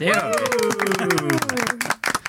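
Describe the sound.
A small group claps in a quick, irregular patter of sharp hand slaps, while a voice calls out over the applause and the clapping thins toward the end.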